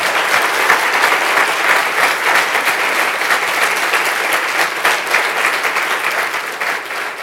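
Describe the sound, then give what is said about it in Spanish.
An audience claps loudly and steadily as applause to the Lord, a dense wash of many hands sustained throughout with no voices standing out, tapering slightly at the very end. “Denle un fuerte, aún más fuerte ese aplauso al Señor.”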